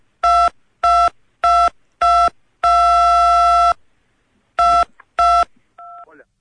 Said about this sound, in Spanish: Sí, porque sonaron unos pitos, no sé qué pasó. Sí, no, como que tenías apretado como la vieja tecla del teléfono que estaba. te marcó el mi oreja o la nariz, no sé. Estabas apoyado en el celular.